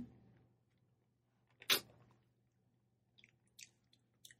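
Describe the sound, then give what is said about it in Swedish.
Loud mouth chewing: one sharp crunchy bite followed by a few softer, wet smacking sounds spaced out over the next few seconds, with no talking. “Nej men gud, du kan inte smaska, jag får panik. Jag hatar smask.”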